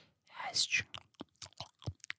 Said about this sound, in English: And I'm chewing some food, and I'm just here and that's sort of what the class is the inner ASMR